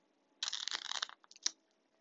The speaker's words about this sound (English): I am shuffling the Rider Waite Tarot, the OG of the tarot.